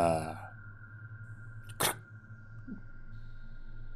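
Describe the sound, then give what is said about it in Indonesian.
A bedroom door handle gives one brief, sharp metallic click midway through, heard against a low steady hum and a faint sustained tone, with a short snatch of voice at the very start. “Bunyi gagang pintu kamarku membuat aku kaget karena sepertinya ada yang membuka pintu.”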